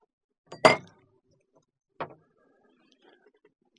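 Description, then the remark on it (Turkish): A drinking glass is knocked over: a sharp clattering crash, then a second shorter knock about a second and a half later, with faint small rattles afterward and no talking. “bu arada bir bardak devirdim ama özür dileyecek bu malzemeleri kurtarma işlemini tamamlamam gerekiyor ve tamamlandı.”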